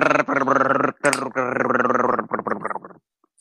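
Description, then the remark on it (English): A voice imitates another speaker's choppy, breaking-up call audio during a tabletop dice game: loud, garbled vocal bursts cut by brief gaps, stuttering into short clipped fragments near the end before falling silent. “Uh, your voice is choppy. You're breaking up really bad.”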